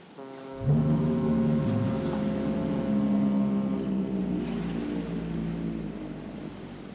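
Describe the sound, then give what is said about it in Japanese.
A deep lighthouse foghorn, like the one in Ray Bradbury's story "The Fog Horn", blows one long, steady blast that begins after a brief hush and drones on loudly for several seconds, rich and sustained, with no voices. “after fog horn(レイ・ブラッドベリ作「霧笛」に添える唄）”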